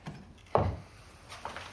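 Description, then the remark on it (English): A heavy wooden cellar door, blown open by the wind, bangs open with a single sharp thud, followed by a softer knock or rattle as it settles. “It's the cellar door.”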